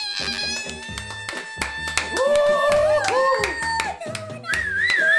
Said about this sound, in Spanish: Un aplauso.